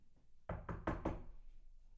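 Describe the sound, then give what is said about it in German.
Four firm knocks on a door in a quick, even rhythm, followed by a pause and a single sharp tap or click at the end, as someone arrives for a job interview. No one speaks. “Stell dir vor, nee, stell dir mal vor, du bist ähm, Personal, du, du bist die Person, die angestellt ist für das Personal bei Radio Gong und ich komme jetzt rein fürs Bewerbungsgespräch.”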